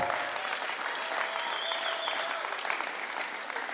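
An audience at a church sermon applauds a young assistant who had his birthday the day before, steadily for a few seconds, a dense, even wash of many hands clapping at a constant, fairly loud level with no voices standing out.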